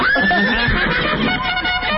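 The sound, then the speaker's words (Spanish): A horse whinnies loudly, a high, wavering cry over a rough, breathy rumble that fills about two seconds without a break. “Ok, entonces, ya salió el caballo, ahora pones la canción que va con el caballo”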